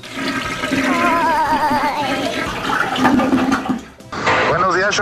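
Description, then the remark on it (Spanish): A loud toilet flush roars and gurgles for about four seconds with voices talking over it, cuts off briefly, then swirling water picks up again. “A todos esos, tanto a los jefes como a esas personas quisiera mandar al toilet”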